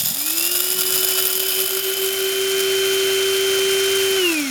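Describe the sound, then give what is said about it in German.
An electric coffee grinder runs for about four seconds: a steady, loud motor whine with a constant hum and a high tonal overtone, spinning up at the start and winding down at the end. “ich habe mir heute just eine neue Kaffeemühle erworben, käuflich. Warte mal, klingt die ja. ungefähr so?”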